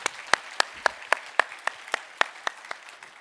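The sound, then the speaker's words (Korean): Audience applause at a church gathering, thanking and encouraging those who took part in mission work, with a steady, rhythmic beat of crisp, sharp claps, about four per second, over a softer wash of scattered clapping. No one speaks. “우리 모든 수고하신 분들에게 우리 마음을 담아서 우리 감사와 격려의 박수를 함께 올려드렸으면 좋겠습니다.”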